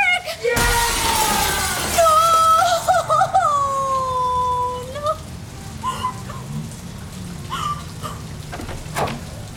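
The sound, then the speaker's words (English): Fire sprinklers in a meeting room burst on suddenly and keep spraying in a steady, loud rain-like hiss, with wavering tonal sounds and brief voice-like bits rising over the spray. “Why are the sprinklers going off?”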